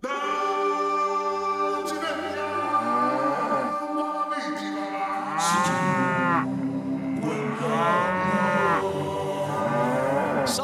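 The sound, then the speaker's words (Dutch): Several cows on a farm in Overijssel moo loudly as they wake at sunrise, around half past four in the morning, their long drawn-out calls overlapping and rising and falling in pitch, with no talking. “De zon komt op, de koeien ontwaken.”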